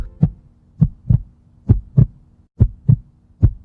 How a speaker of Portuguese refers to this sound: Para você ter uma ideia, a batida normal do coração é mais ou menos assim, ó.